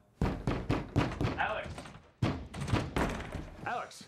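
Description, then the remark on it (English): Heavy fists pound on a door in two rapid bursts of about four blows each, the loud, booming thuds separated by a brief pause. “Did you not just hear us pounding on the door?”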